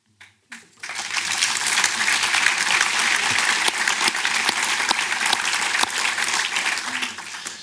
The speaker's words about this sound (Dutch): Ik krijg het applaus van de zaal, maar ben jij het ook helemaal met hem eens?